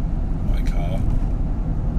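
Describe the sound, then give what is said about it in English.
Steady low rumble of a car's engine and road noise from inside the car during a drive, continuous and fairly loud, with a few faint higher-pitched clicks and squeaks briefly in the middle. “So yeah, so there's not there's not much variation in the drive, and I'm in my car”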